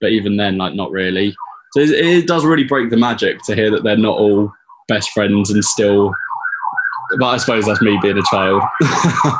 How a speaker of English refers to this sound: yeah, you can hear the uh, the sirens in the background there in uh, in in, in open like. open window culture that we now live in here in the UK in uh, in this this heat.